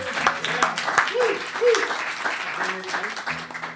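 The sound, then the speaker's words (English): An audience claps steadily for a few seconds for a guest being introduced, with scattered cheers and voices calling out over the dense, continuous applause. “Let's hear it for”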